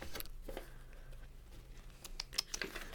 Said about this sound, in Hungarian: Újabb lapozgatással szeretném kitölteni az időt.